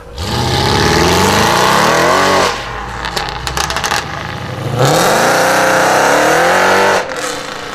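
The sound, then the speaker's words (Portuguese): A Mercedes C63 AMG Black Series 6.3 V8 engine revs hard twice, each rev climbing to a loud roar, with a crackling, burbling idle between them. Powerful, with no voices. “Isso é o motor V8 6.3 do Mercedes C63 AMG Black Series.”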